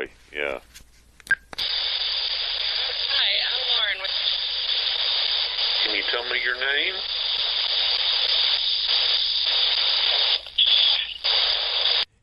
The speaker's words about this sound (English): You have to hear it. it's kind of under the the staticky noise. You can hear it right yeah. kind of underneath.